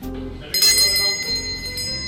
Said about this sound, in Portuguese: A campainha indica que o robalo já está pronto.